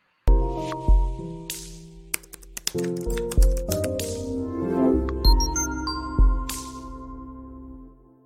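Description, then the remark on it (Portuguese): A short intro jingle of sustained synth chords, punctuated by crisp typewriter-like taps and clicks and a few bright dings, playing loudly on its own for about eight seconds with no voices. “Enquanto eu rodo a vinheta, deixa o seu like no vídeo e se inscreve no canal.”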